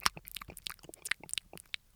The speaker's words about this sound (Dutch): Wat dat namelijk doet, dat zorgt ervoor dat die mond weer wat vochtiger wordt. En dat zorgt ervoor dat je wat minder nare bijgeluiden, smakgeluiden krijgt